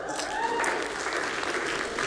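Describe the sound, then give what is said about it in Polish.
An audience claps for itself together in a dense, steady burst of applause that fills the whole two seconds, with some voices mixed faintly underneath. “Możemy sobie zabić brawo.”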